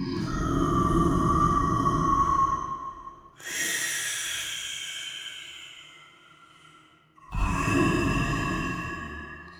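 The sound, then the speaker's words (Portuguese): A deep, hollow breathing-like sound from a vertical shaft on an island rises and falls: a low rumbling draw, then a long airy rush like an exhale, then the rumble swells again. Loud, with no voices. “Eles chegaram até um ponto onde encontraram o motivo de um barulho muito específico que havia naquela ilha, quase como uma respiração.”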